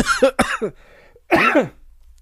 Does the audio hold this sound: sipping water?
no